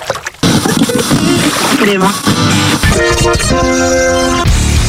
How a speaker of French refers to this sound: Je fais des vagues avec mes mains.